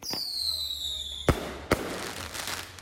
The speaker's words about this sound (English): They were furious over the ongoing problem of illegal fireworks plaguing New York and cities across America, keeping people up like it was the 4th of July every night.